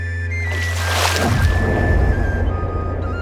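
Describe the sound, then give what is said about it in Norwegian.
Water sloshes and splashes against the hull of a small boat on a deep lake, where a reporter is out in the boat, with a steady low engine-like hum beneath and a sustained tonal whine; no one speaks. “er ute på vatnet i båt.”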